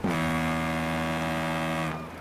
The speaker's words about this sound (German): Klingt, ja, es, es klingt auch viel zu klein. Es ist natürlich ein Nebelhorn. Das ist ein Nebelhorn, so ist es richtig.